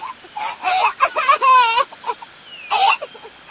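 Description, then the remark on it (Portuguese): A voice sobs and wails in several uneven bursts, with one long quavering cry in the middle, sounding like an exaggerated imitation of crying. “Ela está chorando, sim.”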